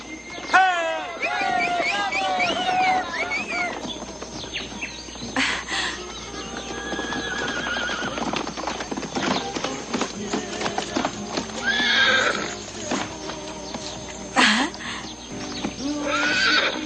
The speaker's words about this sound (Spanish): Lleva a los caballos a descansar.